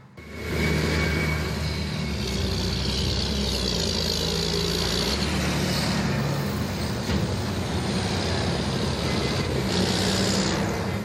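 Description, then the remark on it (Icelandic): Heavy vehicle engines rumble steadily as a line of tractors in a farmers' protest convoy drives into central Prague, Czech Republic, a continuous loud low drone with occasional rising engine revs and no voices. “Dráttarvílarnar keirðu svo inn í miðborg Prag og hafðu þar verulega áhrif á umferðina en það keira um 100.000 bílar um miðborgina á hverjum degi.”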